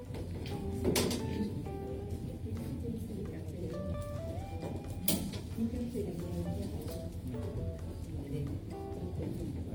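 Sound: door being closed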